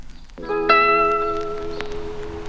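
A song's opening plays: soft sustained chords swell in, a second layer of bright notes joins a moment later, and they hold steadily without any singing yet.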